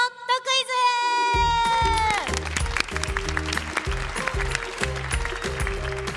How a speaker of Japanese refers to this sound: なんかちょっと公開収録のこの感じにも一中生が慣れてきてくれてる感じがする私がこの拍手のジェスチャーをしなくても拍手が起こるようになってきました